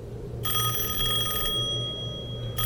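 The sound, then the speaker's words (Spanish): A telephone call to a house rings at around eight at night, with a bright, steady electronic trill, one long ring followed by a pause and the start of another, over a low background hum. “Apenas sonó el teléfono y se contestó.”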